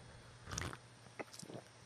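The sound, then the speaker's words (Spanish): A quiet sip of sake (Nihonshu) from a cup: one brief wet slurp, followed by a few softer mouth and swallowing sounds, with no talking. “le voy a dar un trago acá mi”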